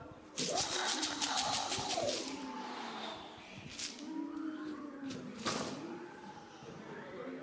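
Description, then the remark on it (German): Several voices imitate wind rushing through trees, blowing breathy, hissing whooshes with rising and falling hoots that swell and fade over a few seconds, moderately loud. “Der Wind, der die Bäume zum Geräusch machen bringt, die Wind, wie hört der sich an?”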